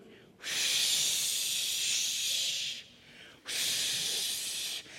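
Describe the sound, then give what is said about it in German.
A voice imitates a cold wind blowing over snowy land with two long, breathy whooshing hisses, each lasting a couple of seconds with a short pause between, fairly loud with no talking. “Wie klingt der Wind? Der Wind klingt so.”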